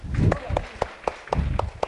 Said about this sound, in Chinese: 请举手，猜一猜。欢迎鼓掌。啊，欢迎鼓掌。对，答对了，给他鼓励鼓励啊。